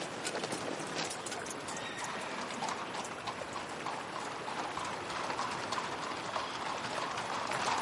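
Hooves of several riding horses clatter steadily throughout as Felipe rides out of the castle on horseback, followed by Debeir and his escort: a dense, continuous patter of hoofbeats, with occasional high whinnies breaking through the noise. The sound stays fairly loud and even, with no talking.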